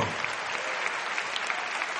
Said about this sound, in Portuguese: Você pode aplaudir e glorificar o nome do Senhor.